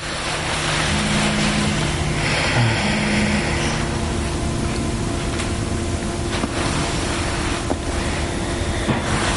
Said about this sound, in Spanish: La mujer escucha el móvil vibrar de nuevo, se levanta de la cama y se dirige al baño.